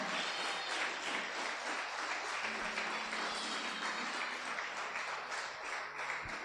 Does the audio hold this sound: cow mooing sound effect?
no